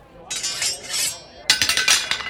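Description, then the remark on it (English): Metal dueling swords clink together in the show Evil Island City Hall: a bright, ringing scrape that hangs for about a second, then a quick run of sharp, loud clashes in an uneven rhythm, high-pitched and metallic. “Some dueling swords. Do you just carry those around with you?”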